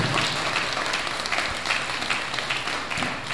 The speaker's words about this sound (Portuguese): Quem recebe esta palavra, levante a mão nessa manhã e aplaude o Senhor bem forte para a glória de Deus. Pode aplaudir o Senhor bem forte nessa manhã.